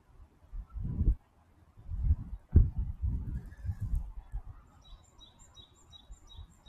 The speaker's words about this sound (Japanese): なんか鳥が鳴いておりますね。